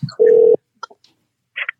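Electronic telephone keypad tones as a phone number is dialed: one sustained, fairly loud beep, followed by a few short, sparse blips and a brief higher chirp near the end, with no voices.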